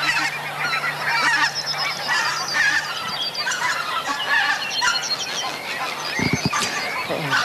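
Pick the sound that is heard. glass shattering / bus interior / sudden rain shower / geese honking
geese honking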